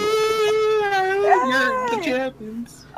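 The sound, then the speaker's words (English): A loud, drawn-out victory screech: one sustained howling yell that holds a high, strained pitch, then wavers and slides downward before trailing off. “Yes, victory screech.”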